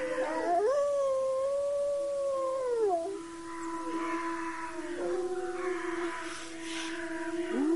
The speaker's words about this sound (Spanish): Y con este sonido maravilloso de los lobos aullando, esa sensación de paz. de conexión.